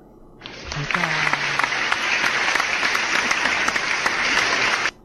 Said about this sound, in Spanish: a ver los aplausos.